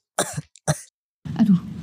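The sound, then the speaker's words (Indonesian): Two sharp coughs a moment apart, then a longer rough, throaty hacking sound, as if someone is clearing their throat. No one speaks. “bentar bentar ini mama kamu tahu nggak kamu kayak gini udah sampai batuk-batuk tuh eh, enggak sih tan soalnya emang uh, baru banget”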